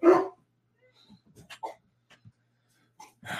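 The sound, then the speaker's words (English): A dog barks loudly, one sharp bark at the start and another at the end, with faint scattered noises and quiet whimpering sounds in between. “we do live with dogs.”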